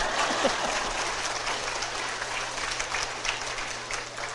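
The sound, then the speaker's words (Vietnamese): A crowd claps steadily throughout, a dense, even wash of many hands with no pauses, fairly soft in level. “Trời ơi cười không chịu vỗ tay”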